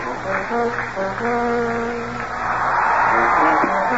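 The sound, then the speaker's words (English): A large crowd at a San Diego Padres baseball game roars steadily in a dense wash of cheering and shouting, pulling for the Padres, with sustained tonal notes running through it, swelling louder over the final second and a half. “Enthusiastic crowd on hand, pulling for the Padres right down to the end.”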